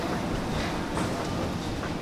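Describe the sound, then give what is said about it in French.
Steady, loud rumble of the STIB public transport metro station at Gare du Midi, with the continuous low roar and rattling hiss of a running train, and no clear voices above the din. “Donc là, maintenant, on va prendre les ascenseurs, on va descendre dans un autre espace qui est euh, la gare du Midi, mais la partie euh, de, la, de la STIB, donc des transports en commun, station de métro.”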